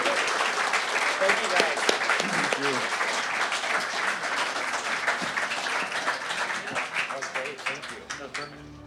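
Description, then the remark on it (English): An audience at Velocity 2022 bursts into sustained applause, dense clapping at a steady loud level before thinning slightly toward the end, with faint voices mixed into the noise. “Let's give it up for this guy, please.”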